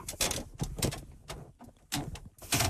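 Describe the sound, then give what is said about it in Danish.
A tightly adjusted microphone boom arm creaks and squeaks as it is moved, giving several irregular groans in quick succession with brief pauses between them and no talking. “Den, altså, den knirker på en helt ny måde.”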